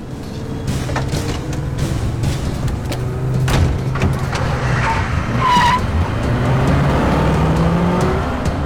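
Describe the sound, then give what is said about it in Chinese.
Car engines roar steadily throughout a chase scene as one car pursues another, with rising and falling revs and a sharp, high tire squeal cutting through around the middle. No one speaks. “远远的马红的车也追了过来”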